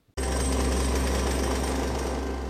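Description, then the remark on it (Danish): A pneumatic drill starts abruptly and hammers steadily against sandstone rock on a hill in the Sahara, loud, with a continuous rattling roar and a deep motor drone throughout. No one speaks. “Det her er lyden af et trykluftbord, og det er et glimrende værktøj, hvis du tilfældigvis står på en høj i Sahara og har brug for at få fjernet 15 tons sandstensklipper.”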